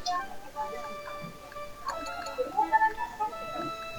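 Quiet café ambience: a steady low hum fills the room, with a few faint clinks and ticking sounds around the middle and soft, indistinct murmuring in the background.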